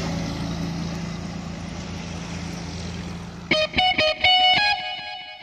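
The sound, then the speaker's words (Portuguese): A truck rumbles past steadily, then sounds its loud horn in several short, tonal blasts near the end, prominent over the fading engine noise. “O nosso amigo caminhoneiro passando. Oh abraço a buzinaço aí pra moçada da rodagem.”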